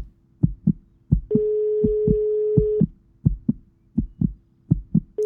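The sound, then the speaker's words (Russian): A phone ringback tone sounds once as a steady, sustained beep for about a second and a half, from a call that is not answered, over a constant rhythm of low, muffled heartbeat thumps that keep pounding before and after it. “Отчаянный звук вызова рефреном.”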